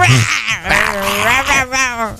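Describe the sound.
A person imitates a lion's roar with a loud, drawn-out voiced growl that wavers and slides up and down in pitch for about two seconds, sounding more catlike than fierce.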